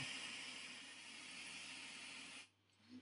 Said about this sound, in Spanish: El ruido blanco, que es este, o sea, aquí vais a oír ahora, os pongo... No sé cómo se oye, Esto es ruido blanco.